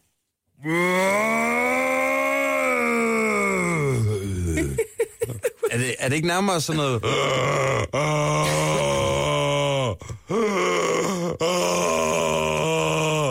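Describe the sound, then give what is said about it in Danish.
A person imitates a rutting deer's roar: a loud, long, low groaning bellow that breaks into a series of choppy, moaning grunts, with a brief spoken phrase mixed in. “Må jeg prøve mit hjortebrøl?”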